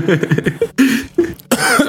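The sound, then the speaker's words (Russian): A few loud coughs in quick succession, harsh and raspy with short voiced grunts between them, like someone deliberately hacking into a microphone. “А ну покашляешь.”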